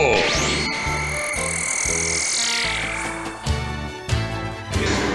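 A toad croaks loudly, a rapid series of rhythmic pulses repeating steadily for several seconds, with no voices present.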